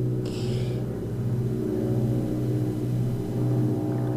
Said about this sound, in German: Und hier wird es gerade ein bisschen lauter, weil ein Hubschrauber übers Haus fliegt